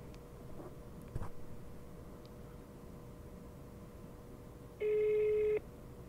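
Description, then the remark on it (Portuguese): A steady phone-line tone hums through an outgoing phone call that goes unanswered, then a single loud, buzzy ring burst sounds near the end over faint background noise. No one speaks. “olha lá, não atendem. Vou ter um terceiro telefone, vamos lá.”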